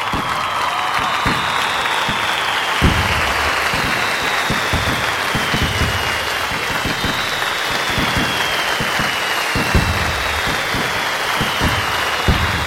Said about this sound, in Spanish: Bueno, a todos los que nos han acompañado durante más de 40 capítulos, quiero darles las gracias y mandarles este aplauso con fuegos artificiales. Ahí les va.